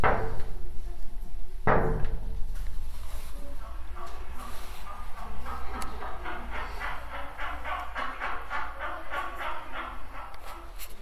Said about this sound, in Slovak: Pustíme si hlucháňa ešte.